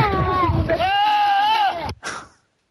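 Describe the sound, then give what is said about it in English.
A person bleats loudly like a goat in a voice clip used as a PC error message sound, a sustained wavering nasal cry lasting about two seconds, followed by a short second burst before it fades out. “that was kind of, you sound like a goat.”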